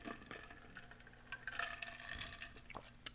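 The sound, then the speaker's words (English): Homemade watermelon juice mixed with sparkling water is poured into a glass, a soft continuous gurgle and fizzy crackle with small splashes, fairly quiet, lasting about three seconds with no talking. “Oh, sorry, I got a juicer, and um, I made some watermelon juice, and then I put mixed it with sparkling water.”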